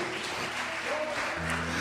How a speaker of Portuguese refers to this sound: Você pode aplaudir bem forte ao Senhor?